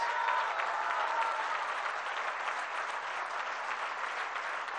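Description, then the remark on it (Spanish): A crowd in Puebla applauds steadily for migrants, a dense, even wash of many hands clapping at constant loudness without voices rising above it. “Es una bendición, por eso un aplauso a los migrantes.”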